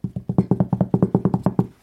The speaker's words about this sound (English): This is a dramatic pause. Wait, here, maybe drum roll.